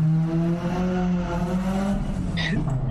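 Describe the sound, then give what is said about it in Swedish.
Loud, steady engine drone from cars racing on the street outside, with a deep rumbling tone that holds throughout and a brief sharp high-pitched squeal near the end. “där var det racing utanför på gatan.”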